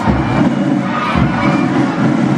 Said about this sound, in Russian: а за ними идут еще вот масса, масса какие-то, просто масса детей, и что-то они еще и скандируют при этом.